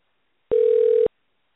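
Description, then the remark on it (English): A single steady telephone dial tone hums for just over half a second as a host phones a guest, loud, starting and stopping abruptly with faint clicks at each end, surrounded by silence. “Here we go, dial tone.”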